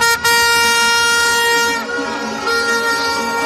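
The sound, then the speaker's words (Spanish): Loud tractor protest horns blaring together in a dense, sustained chorus of overlapping tones, with only a momentary break near the start and a slight dip partway through. “Tres organizaciones agrarias, COAG, ASAJA y UPA, han convocado una tractorada para el lunes.”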